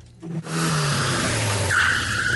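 A car engine roars and drops in pitch as the vehicle slides, then a loud, steady high tire squeal cuts in and holds to the end, like a car fishtailing. No voices.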